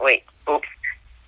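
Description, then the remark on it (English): A short mobile phone notification chime of two brief, bright tones sounds, overlapping a speaker's startled, quick interjections. “I'm sorry, that was my phone.”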